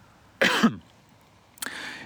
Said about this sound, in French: C'est-à-dire que, pardon, je tousse.